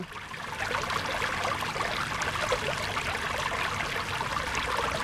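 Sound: small river stream flowing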